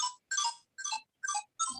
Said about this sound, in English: my phone always rings during the podcast. I'm just gonna just shut my ringer off.